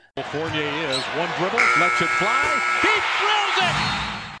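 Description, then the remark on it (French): A steady electronic NBA game buzzer blares for over a second, ending the first game, amid a busy arena din, with voices shouting and sneakers or a ball bouncing around it. “Voilà, le buzzer euh, du premier carton retentit.”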